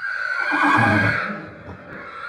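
A horse lets out one loud whinny, a shrill quavering call that holds for about two seconds before trailing off, with no talking over it.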